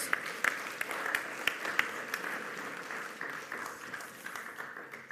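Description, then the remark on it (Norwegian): A crowd applauds steadily, a dense wash of many hands clapping with a few sharper claps standing out early, sustained throughout without any talk; the audience is clapping for the fathers on Father's Day. “Da har vi gjort unna klappinga.”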